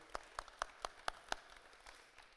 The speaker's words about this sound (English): And before we do anything, like we always do, let's uh, give it a round of applause to everyone who serves here and volunteers.